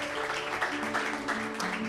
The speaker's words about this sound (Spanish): Dale un aplauso al que vive y reina. A Cristo.